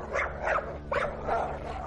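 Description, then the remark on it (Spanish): At night, as a door is slowly opened, a dog growls low and continuously while letting out several short barks in quick succession, with no one speaking. “El perro comenzó a gruñir y a ladrar.”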